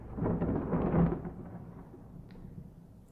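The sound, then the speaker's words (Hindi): A deep rumble of thunder swells for about a second, then rolls away and fades into a low, lingering murmur, with no voices. Thunder during a rainy lightning storm at Begalpur railway station. “राकेश एकदम से स्टेशन पर पता ही नहीं चला कि स्टेशन पर मौसम मौसम में बिजली कड़क रही थी पर सन्नाटा सा हो गया था”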